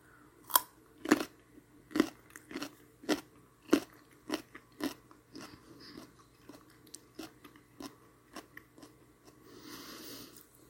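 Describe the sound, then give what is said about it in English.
Crunching and chewing of raw carrot sticks, a steady series of sharp, crisp bites and grinding chews repeating about every half second, with no talking. “But I'm gonna be eating these carrot sticks anyway, so I might as well see what it sounds like.”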